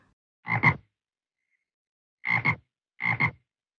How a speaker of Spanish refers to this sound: La rana le gusta nadar en el estanque. Rana.